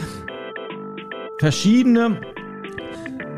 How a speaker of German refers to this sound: man hört es jetzt gerade im Hintergrund, weil jetzt klingelt nämlich das Telefon, das hat sich per Bluetooth dann mit dem Roadcaster verbunden.